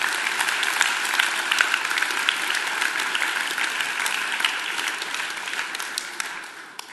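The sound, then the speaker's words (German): A crowd breaks into sustained applause for God, many hands clapping in a dense, steady wash of crisp claps that holds for several seconds before tapering slightly at the end. “Wollen wir Gott mal einen Applaus geben für jedes Gebet, das er aus gutem Grund nicht beantwortet hat?”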